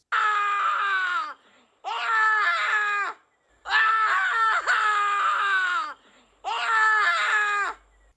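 Four long, loud, desperate screams in quick succession, each a sustained, strained wail of about a second or more with brief pauses between, piercing, with no talking.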